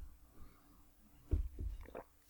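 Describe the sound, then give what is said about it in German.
A wet gulp of someone swallowing a sip of whisky, two or three soft throaty pulses in quick succession after a near-silent pause, with no talking. “A, ich muss erstmal schlucken und B, weil ich gerade wirklich schlucken musste, den Whisky.”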